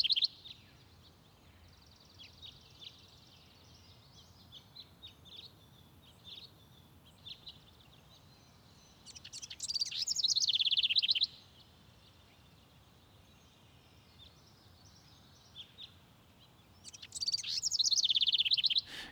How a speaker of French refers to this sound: Il y a un moment que je déteste, euh, c'est quand les oiseaux euh, commencent à chanter, tout ça. Parce qu'ils font un potin monstrueux, quoi. Ça rappelle trop peut-être le monde, quoi. Mais c'est un potin comme ça, hein, des fois.